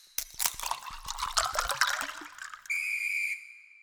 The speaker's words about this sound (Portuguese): O juiz apitou o final do jogo.